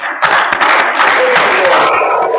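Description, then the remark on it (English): An audience at a church service claps their hands in praise to the Lord, a loud, steady wash of applause that starts abruptly and carries on, with some voices calling out underneath. “Let's uh, this morning give the Lord a big uh, clap and, and honor to Him.”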